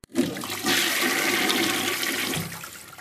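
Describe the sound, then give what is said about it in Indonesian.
A toilet flushes, a loud rushing surge of water that holds steady for about three seconds with no voices over it. “Nanti ada suara di flash.”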